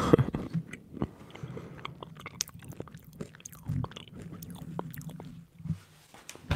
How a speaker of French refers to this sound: Je mange après, je fais des bruits de bouche. Je peux en faire si tu veux en mangeant.